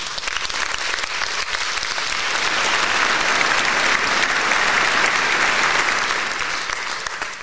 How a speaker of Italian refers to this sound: Le, gli studenti dell'Università di Macerata e di Camerino che da anni le due università collaborano con Musicultura. Un applauso anche per loro.